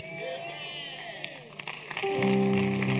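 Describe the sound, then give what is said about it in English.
An audience claps together in a dense, steady patter of applause, and about two seconds in, sustained musical tones swell up loudly beneath the clapping. “Clap well, clap well, clap well.”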